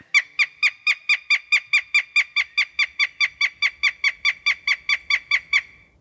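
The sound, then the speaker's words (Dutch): A female northern goshawk calls in a rapid, steady series of about twenty harsh, nasal cackling notes, loud, with no other sounds around it. “De eerste havikroep van het vrouwtje die ik heb gebruikt op mijn app.”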